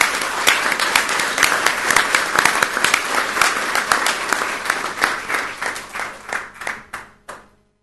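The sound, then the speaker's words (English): People at a board of trustees meeting clap steadily to honor an absent classified employee, a dense wash of overlapping hand claps that thins out toward the end into a few scattered claps before stopping. “So I just I just want to say thank you for honoring her and all of our our uh, classified employees, and just give her a round of applause, even though she's not here.”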